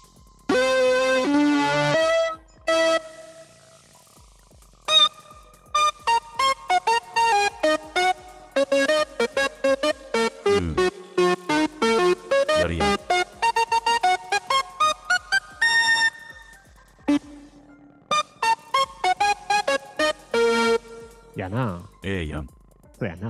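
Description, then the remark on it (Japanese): A bright chorus patch from a JD1016 synthesizer, with a layer of added noise hiss, plays choppy, rhythmic melodic phrases, notes rising and falling in quick runs, fairly loud and alone with no talking. “まず、JD1016 の、えー、コーラス、ノイズが乗ってんのがね”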